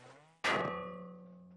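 A single blow of a 25-kilogram hammer strikes a stuck ship propeller that will not come loose, with a hard metallic clang, then rings on with a sustained, slowly fading metallic tone.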